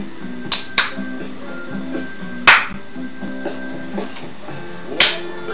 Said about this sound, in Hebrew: יופי. יופי. מחיאות כפיים שתתרגל, אתה כל הזמן שוכח.